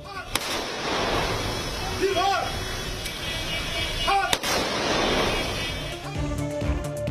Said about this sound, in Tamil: கொல்கத்தாவில் உயிரிழந்த பிரபல பின்னணி பாடகர் … உடலுக்கு துப்பாக்கி குண்டுகள் முழங்க மரியாதை